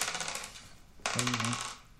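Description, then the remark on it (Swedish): Dice rolled by players clatter and rattle across a hard tabletop in a quick burst of clicks, then a second sharper tumble with a ringing settle, with no voices. “Så vi slår. Som jag sa, du fick den höga tärningen.”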